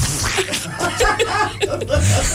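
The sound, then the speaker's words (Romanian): A voice imitates juice squirting out of mici sausages with wet, sputtering mouth noises, fairly loud, mixed with chuckling laughter throughout the short burst. “Păi da, să țâșnească cum țâșnește zeama din mici când de congelezi, știi? Când faci așa”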